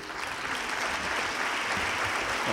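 An audience at a pregón event applauds steadily on request, a dense wash of many hands clapping at an even, fairly loud level for the whole stretch, with no voices standing out.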